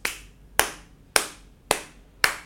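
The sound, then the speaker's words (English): Five crisp claps of a person's hand in a listening exercise alternating hand sounds and footsteps, in a steady, even rhythm about half a second apart, fairly loud, with quiet gaps between them and no voices. “Okay, those are my those are my footsteps and that's my hand.”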